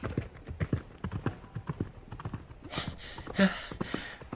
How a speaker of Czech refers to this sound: Ten ale v rychlosti na koně nasedl a kůň vyrazil branou tak, jak přijel.